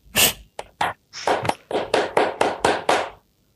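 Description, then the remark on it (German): Sharp hand claps from a single person, about ten in all: a few scattered ones, then a steady, even run that stops abruptly. There is no talking. “Applaus.”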